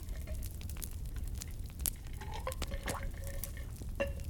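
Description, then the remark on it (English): Someone takes a sip of a drink: quiet wet slurps and small clicks of liquid, with a few brief watery blips over a low steady hum. No one speaks. “Now, pause as I take a little sip of my bevy.”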